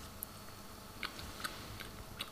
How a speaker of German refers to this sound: Schmatz, Schmatz. Wir sind ja wieder der Podcast, wo man schmatzen und essen und voll Mund reden darf. Lecker.